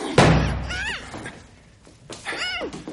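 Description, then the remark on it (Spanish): A door slams once with a loud, heavy bang that rings briefly, followed by two high, wavering meows, the second louder than the first. “¿qué os tengo dicho sobre dar portazos?”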